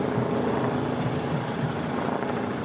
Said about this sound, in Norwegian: Vi hører helikopter, i hvert fall.